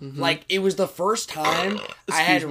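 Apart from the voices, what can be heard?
burp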